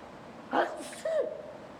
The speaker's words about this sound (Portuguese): Esse foi um espirro, a chuva chegando. Foi um espirro japonês, viu gente?